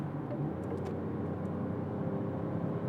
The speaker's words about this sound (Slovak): Porsche, Porsche Cayenne ma predbieha. Ale to je prvogeneračné.